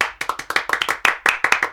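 Hand clapping applause for a guest being introduced, a quick run of about a dozen sharp, bright claps at an uneven, lively pace, fairly loud with no voices over it.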